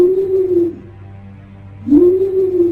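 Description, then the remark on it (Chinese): An owl, heard at night outside a tent at a camp, gives two long, low, steady hoots separated by a pause, with a soft low hum lingering underneath between the calls. “而帐篷外的声音也让我感到非常的害怕，不是猫头鹰的叫声，”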